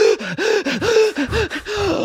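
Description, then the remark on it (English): A person imitates Wim Hof–style breathing with a rapid series of about six sharp, voiced gasping breaths, each a quick rising-and-falling whoosh with a pitched edge, fairly loud and evenly rhythmic, with no talking. “Whereas, you know, more power to people who do Wim Hof breathing during sex, but it's it's like a you know more advanced layer to be like,”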